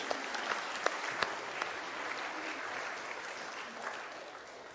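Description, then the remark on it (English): A crowd applauds the volunteers and Sunday school teachers steadily for several seconds, a dense wash of many hands clapping with a few sharper individual claps standing out near the start, holding an even level throughout. “And I think this deserves a clap.”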